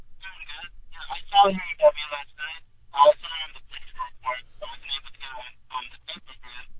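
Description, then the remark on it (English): A voice comes through a thin, narrowband phone line, choppy and garbled, with the speech breaking into distorted fragments at a moderate, steady level. “Oh, your phone's all jacked up, man. I can barely hear you.”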